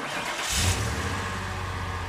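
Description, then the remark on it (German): A car engine cranks and catches with a short, loud burst, then settles into a steady low rumble as the driver sets off toward an animal shelter. No one speaks. “Und auf geht's Richtung Tierheim.”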